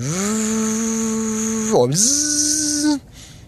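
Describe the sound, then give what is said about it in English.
A voice imitates a small engine with a steady, buzzing hum, dips briefly in pitch, then rises and holds before cutting off after about three seconds. Fairly loud, with no other sounds. “That noise is a vibration. It's gonna sound like a small little engine.”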